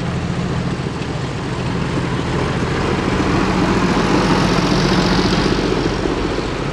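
A tractor decorated with blue and green lights runs with a steady, heavy rumble and a rough mechanical drone, swelling slightly louder partway through as it goes by, on a hill in freezing temperatures. No one speaks.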